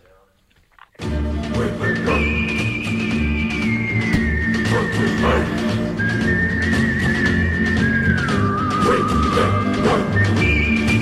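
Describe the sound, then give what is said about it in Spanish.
After a brief quiet start, a full-bodied theme tune kicks in, led by a clear whistled melody gliding between sustained high notes over steady rhythmic backing. It stays loud and even throughout. It is the theme music of Santiago Ballesteros Rodríguez's segment 'Pleitos Tengas y los Ganes'. “Bueno, bueno, suena la música de, nuestro compañero Santiago Ballesteros Rodríguez, la música de su sección Pleitos Tengas y los Ganes”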